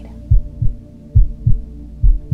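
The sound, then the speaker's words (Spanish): A steady, muffled heartbeat, with three deep lub-dub pairs of low thumps at an even, relaxed pace over a faint continuous hum, and no voices. “Ahí escuchando los latidos de tu corazón, respira.”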